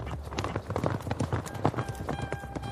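Tired horses trot at a steady pace through fertile, orderly countryside, their hooves clip-clopping in a quick, repeated rhythm, moderately loud, with a faint tonal hum underneath.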